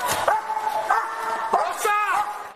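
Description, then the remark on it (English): A police dog barks and yelps loudly, four or five sharp, high-pitched bursts in quick, uneven succession, as police use it to try to get a woman out of a barricaded bathroom in her apartment. “They shot pepper balls and used a police dog to try to get her out.”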